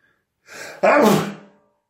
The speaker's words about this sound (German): Ja, aber, äh, ah, Moment, ja, Schon wieder, ich muss niesen.